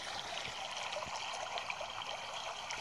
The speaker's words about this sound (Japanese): それで、まあ、なんか、おすすめに急に出てきたんですよね。この川のせせらぎ音が。